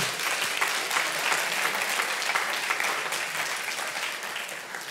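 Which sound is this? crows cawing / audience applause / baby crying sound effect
audience applause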